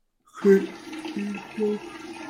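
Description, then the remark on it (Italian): A steady, continuous splashing stream of urine running without a break for over two seconds, with a few low murmured voice sounds briefly over it. “Beh, ma quanto cazzo piscia cazzo c'ha problema alla prostata”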